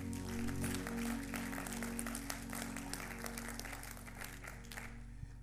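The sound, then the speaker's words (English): An audience at a church service clapping hands unto the Lord, a dense, steady patter of many overlapping claps sustained over a low hum, gradually thinning toward the end. “If you believe in God's power and God's strength, can you clap your hands unto the Lord?”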